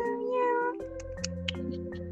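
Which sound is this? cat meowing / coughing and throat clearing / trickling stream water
cat meowing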